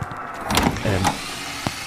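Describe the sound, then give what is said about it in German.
Drilling: short motorized whirring bursts with a low hum, starting and stopping a few times, followed by a brief sharp tap. No one speaks. “Äh, ich, äh, bohrt da jemand?”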